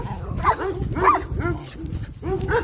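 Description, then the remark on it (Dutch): Dogs, one called Lazy, bark in several loud bursts spaced about half a second apart, with higher yips and whimpering mixed in and no talking. “Nou, de dag daarna oh, komt weer een uh, hondendiscussie.”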